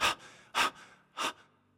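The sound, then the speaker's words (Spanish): A person imitates heavy breathing: three loud, forceful breaths spaced about half a second apart, with no talking in between. “Y estoy ahí respirando fuerte.”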